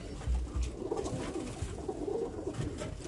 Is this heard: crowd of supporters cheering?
no